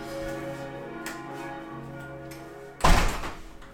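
Church bells ring steadily on a Sunday at 6:15 pm, then a window is pushed shut with a single loud, solid thunk, leaving the bells sounding muffled afterward.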